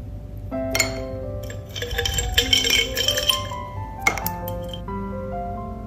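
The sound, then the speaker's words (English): Ice cubes clink and tumble into a bowl of coconut water with blueberries, strawberries and pomegranate, in a steady flurry of bright, glassy taps over about six seconds, with no talking. “I like ice with my cereal.”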